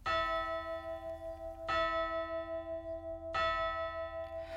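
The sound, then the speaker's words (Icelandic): A large church bell tolls three times at a slow, steady pace, each deep clang ringing out with a rich, shimmering hum that lingers until the next strike. No voices are heard. “Sagt er að sá síður hafi komist á í Evrópu að láta kirkjuklukkur ringja á hádegi vegna þess að á meðan Tyrkir sátu um Belgrad hafi Páfi fyrirskipað öllum katholskum ríkjum að byggja fyrir Sigri Kristina manna í borginni og ringja klukkum sínum.”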